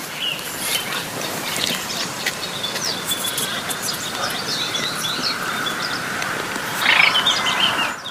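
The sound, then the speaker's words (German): A Baillon's crake, a small rail not much bigger than a lark with a quiet voice, calls softly within a dense, continuous chorus of croaking frogs, with other bird chirps scattered throughout a busy wetland night ambience; the calling swells slightly near the end. “dass dieses Zwergsumpfhuhn ist ja nicht viel größer als eine Lerche, eben auch kein besonders lautes Stimmorgan hat.”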